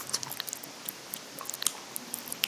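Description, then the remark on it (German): Wet chewing of potato salad with irregular soft crunches and squishy mouth clicks, a steady busy texture of small bites and smacks with no talking. “When chewing, the potatoes audibly chatter in the person's mouth, creating an experience that is bursting with flavor and texture.”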